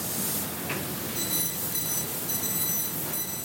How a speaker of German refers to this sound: Eine Laserschneideanlage für die Metallbearbeitung, computergesteuert und groß wie ein Kleinwagen, unter einer transparenten Abdeckung sprühen die Funken. Im Moment schneide ich äh, Stahlbleche in einer Dicke von 2 mm.